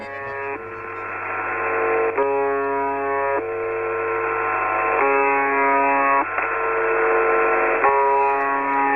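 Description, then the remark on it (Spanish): The UVB-76 shortwave radio station's buzzing signal at night on 14 July 2017: a loud, harsh, steady buzz repeating in segments of about one to one and a half seconds with brief breaks, over a low constant hum and radio hiss. “Así es como suena la UVB 76 a esta hora de la noche del 14 de julio de 2017.”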